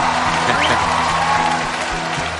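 An audience claps steadily throughout, a dense, continuous wash of many hands at an even loudness with no clear break, with a faint murmur of voices underneath.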